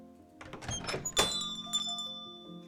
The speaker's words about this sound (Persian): در کافه را باز می کنم. زنگوله بالای در آرام دیلینگ دیلینگ می کند.